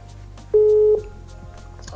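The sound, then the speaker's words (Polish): A phone number is dialed: one loud, steady electronic tone lasting about half a second sounds over a quiet, faintly noisy line, followed by soft clicks. “Już wybieram numer.”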